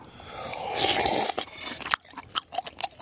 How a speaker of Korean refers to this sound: 어, 건더기. 음. 어, 약간 뭔가 좀 질긴, 음. 질긴 근육을 씹는 느낌이죠.